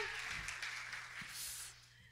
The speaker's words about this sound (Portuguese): Eu quero chamar a Joyce. Que vocês aplaudam ela.